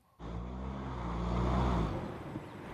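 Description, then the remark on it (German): A two-ton SUV's engine cuts in abruptly with a loud, low rumbling drone that holds steady, then eases off slightly near the end. No one speaks. “Es ist nicht lustig, sagt Greenberg im Internetvideo, wenn jemand die Bremsen deines zwei Tonnen schweren SUVs hackt.”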